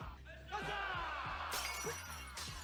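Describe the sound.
Glass and objects smash repeatedly amid loud, rowdy shouts of 'huzza' at the court of Russia's rulers. Sharp, bright crashes break out over the boisterous yelling of a riotous celebration.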